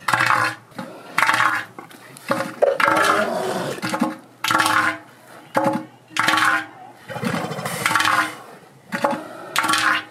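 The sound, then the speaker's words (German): Elephant seals calling, a loud series of harsh, rasping pulsed bellows repeated roughly once a second, about eight bursts in a steady rhythm, with no talking. “Ja, ich habe äh, gerade, während du gesprochen hast, äh, das Geräusch rausgesucht von Seeelefanten.”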